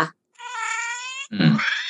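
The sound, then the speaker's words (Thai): A recorded cat meow plays from a pressed pet talking button: one long, steady, tonal meow followed right after by a shorter, rougher, growly cat call, with no talking. “เอ็มมีพูดว่าแบบว่าไปกินเอ่อไปเที่ยวกันไหม กินข้าวหรือยังไปกินข้าวกันอะไรอย่างเงี้ยแล้วมันก็จะมีเสียงแมวออกมา”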